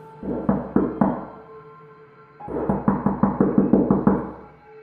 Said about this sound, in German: Als wir dachten, wir könnten endlich schlafen und würden unsere Ruhe kriegen, fängt es nach fünf Minuten an, an der Tür zu klopfen.